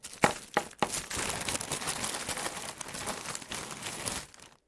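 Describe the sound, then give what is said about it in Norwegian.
Ice cubes pour into a plastic bread bag: a few sharp clinks at first, then a steady, fairly loud crinkling and rattling rush that fades out at the end. Nobody speaks. “Så fyller vi den med isbiter.”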